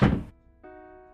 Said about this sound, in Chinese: 我一边想着这些无聊的问题。一边把厨房门关上，